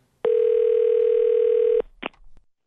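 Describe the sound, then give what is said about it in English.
A telephone line rings once for a prank phone call, a single steady, mid-pitched electronic tone lasting about a second and a half, then cuts off with a click as the call is picked up. No one speaks. “But uh, right now, it is time for the nephew and his prank phone call.”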